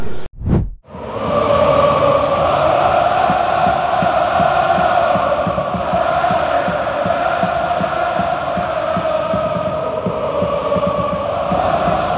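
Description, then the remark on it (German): A huge stadium crowd, with the stands a sea of yellow-red flags, roars loudly and continuously about half an hour before kickoff as a player comes out of the dressing room to warm up, a dense wall of cheering that holds steady for over ten seconds after a brief low thump at the very start. “Lance kam gerade aus der Kabine zum Warmmachen und es war das erste Mal so richtig, richtig laut”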